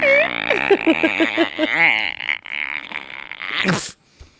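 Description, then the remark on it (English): A voice imitates a rubbed balloon, making a run of rapid, pitch-wobbling squeaky squeals that glide up and down for a few seconds, then end in a short breathy burst. “I like to imagine that if you tried to get through the doorway, that you would make that noise that like a balloon makes when it's try- when you're you rub your thumb across it.”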